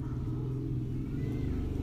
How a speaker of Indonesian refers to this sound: bentar motor lewat